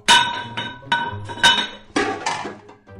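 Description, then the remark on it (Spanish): Metal cooking pots clank and clatter in a quick series of bright, ringing knocks as someone searches for the pasta pot, shifting and stacking them, with a longer scraping rattle toward the end. No voices. “Así que me voy a cocinar. ¿Dónde habré puesto la olla para la pasta?”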